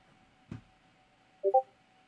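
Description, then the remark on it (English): A soft click, then a quick pair of short electronic beeps, like a phone notification chime, fairly quiet against a faint steady hum with no talking. “Notifications.”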